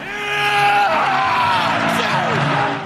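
A man, Roma's new coach, lets out a loud, sustained roar of celebration after the team reached the Europa League round of sixteen with a penalty shootout win over Feyenoord. It is one long strained yell that stays intense for about three seconds with a raw, shouting edge.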